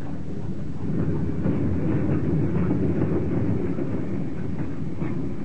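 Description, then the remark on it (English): A freight train rumbles steadily along the tracks, a continuous heavy low roar with faint rattling, unbroken throughout, with no voices. “Down the grade she came, a rumbling, with her 50 cars or more”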